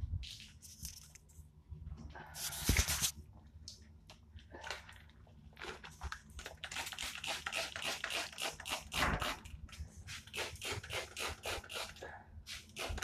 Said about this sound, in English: I'm having to sweep in here again. The fucking dirt comes up to the wooden floor.